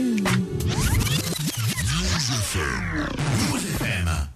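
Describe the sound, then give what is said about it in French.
A hip-hop track plays loud and steady, with sung or rapped vocals swooping over a dense, full backing and scratchy textures throughout. “On va passer donc à l'interlude musical.”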